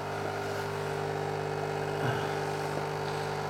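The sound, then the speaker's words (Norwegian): A capsule coffee machine brews with a steady, fairly loud mechanical hum and buzzing pump drone that holds level throughout, with a brief swell near the middle and no voices. “Er sånne kaffemaskiner praktiske, egentlig?”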